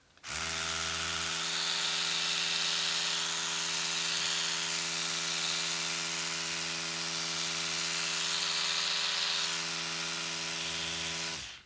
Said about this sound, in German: nicht jeder hat eine Elektro-Zahnbürste aber Ich habe eine, deswegen ähm, mache ich das jetzt mal. 20 Sekunden, aber ich putze mir nicht wirklich. Ich mache einfach nur das Geräusch.